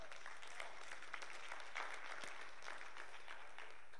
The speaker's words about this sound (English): Come on, somebody, give him a hand clap of praise on that.